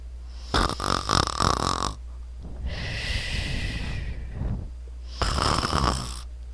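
A voice imitates a giant's loud, rattling snoring after a meal: two harsh, buzzing inhaled snores with a long, hissing breathy exhale between them, in a slow sleeping rhythm with no talking.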